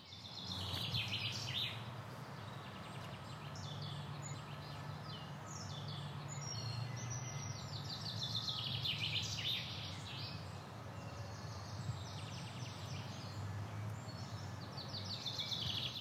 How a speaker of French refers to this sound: Ce que vous entendez là, ce sont des oiseaux qu'on a enregistrés en se promenant dans le quartier nord de Nantes, pas très loin de la Boissière.